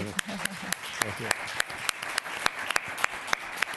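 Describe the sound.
An audience breaks into steady applause, a dense wash of many hands with sharp individual claps popping out. A voice is briefly heard over it at the start.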